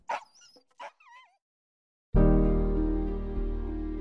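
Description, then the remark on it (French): Sled dogs used for sled-dog initiations in northern Quebec let out a quick flurry of high yips and whining cries, then fall silent before a loud, steady droning sound abruptly takes over. “Tony propose des initiations aux chiens de traîneau dans le nord du Québec avec la lignée des chiens de Nicolas.”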